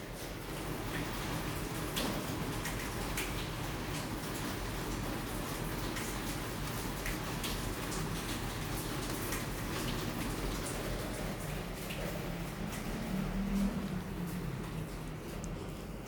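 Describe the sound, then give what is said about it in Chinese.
Steady rainfall in Taipei in the early morning, around six to seven o'clock, at 13 degrees Celsius: a constant hiss dotted with sharp little drip and tap sounds, holding an even loudness throughout with no voices present. “听到的是啊、呃，台北的雨声。”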